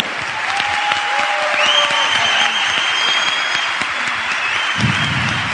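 Steady, sustained applause from an audience, a dense crackle of many hands clapping at even loudness throughout, with a few faint whistles or cheers rising above it.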